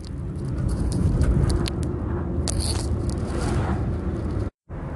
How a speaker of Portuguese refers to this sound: Desculpa aí, galera, eu tava botando o microfone aqui, que eu tô no trânsito, indo pra minha casa agora.